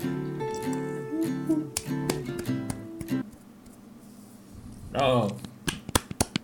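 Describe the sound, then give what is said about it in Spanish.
Sharp hand claps snap out irregularly, scattered over a sustained tonal background early on, then ring out more clearly and closer together near the end. “Palmas.”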